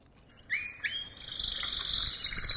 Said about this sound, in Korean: 아, 예쁜 새소리군요. 이게요, 카나리아 소리입니다.